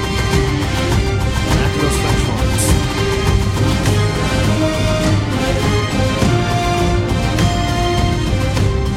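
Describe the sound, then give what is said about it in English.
A loud, full orchestral piece from The Mandalorian score, with sustained brass and strings, driven by steady, crisp snare drum rolls and hits that give it a marching, militaristic feel throughout. “listen to those snares in the background, right? Something very militaristic about these Mandalorians, which makes sense.”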